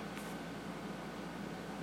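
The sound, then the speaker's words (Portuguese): A steady, low air conditioner hum in a zendo during zazen meditation drones evenly throughout, a soft continuous whir with no pauses or changes, faint. “o ar-condicionado, as velas, o incenso, o Buda, a fala do Dharma, a tosse, o sino.”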